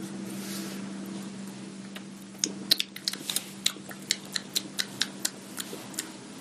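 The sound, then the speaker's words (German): A run of wet, sharp lip smacks, a dozen or so in a quick uneven rhythm, made while tasting beer on the palate after a sip, following a few seconds of quiet low hum with no talking. “Das macht, trink einen Schluck und schmatzt es mal im Gaumen weg.”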